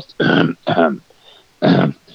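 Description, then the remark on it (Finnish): Three loud, deliberate coughs or throat-clearing bursts in an uneven rhythm, two in quick succession and a third after a short pause, with no talking. “me muuten yskitään tässä ohjelmassa ihan liian vähän.”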